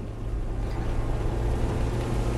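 A car speeds at night along a wet, deserted country road on Bankerø in the rain, far over the 50 km/h limit, a steady loud engine rumble with a constant broad hiss of rain and tyre spray, unbroken throughout and with no voices.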